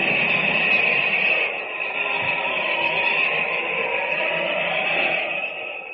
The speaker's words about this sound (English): What do you know? We're flying. This sounds like an airplane.